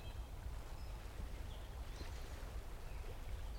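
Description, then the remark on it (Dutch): Soft, continuous water laps gently at a shore, low and steady with no clear splashes, growing quieter and sounding ever farther away, while a few faint bird chirps come through. “En het geluid van het water klinkt steeds verder weg.”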